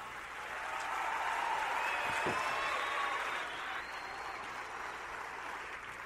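An audience applauds steadily for several seconds, a dense wash of clapping that swells early and then holds at a fairly even level without any talking over it.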